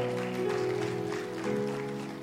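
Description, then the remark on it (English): A church audience claps to celebrate Jesus at a Christmas service, a dense wash of many hands at a constant loudness, with sustained organ-like tones holding underneath throughout. “Don't you clap your hands together and celebrate Jesus for that?”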